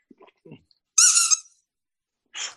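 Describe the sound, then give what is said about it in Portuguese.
A squeaky toy ball bought for a dog lets out a loud, high-pitched squeak lasting about half a second, then a second shorter squeak follows after a pause, with faint soft rustling before. “O que é que está a chiar?”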